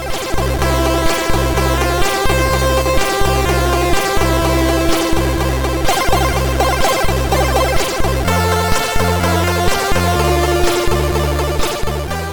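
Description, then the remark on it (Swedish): Upbeat chiptune title music from a Commodore home computer game, loud and busy, with a steady pulsing bass and rapid bright arpeggiated melody lines repeating in a driving loop, no voices. “Men titellåten, eh, som på Commodore låter så här.”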